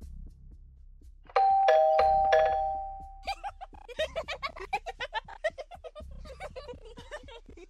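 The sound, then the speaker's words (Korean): A doorbell at an apartment door chimes loudly, a few quick bright tones ringing out and fading, then a rapid rhythmic run of crackling, fluttering sounds follows. “그리고 초인종이 울렸다.”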